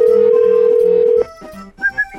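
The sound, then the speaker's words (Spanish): A loud, steady ringing tone from a phone line on an outgoing call to a mechanic's repair shop holds for about a second and then cuts off, leaving faint background noise and two short, higher beeps. “Tenemos el teléfono de este mm. taller mecánico.”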